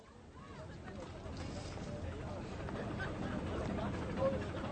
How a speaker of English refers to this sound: They're standing in a long queue of people who also want to buy tickets for the boat trip.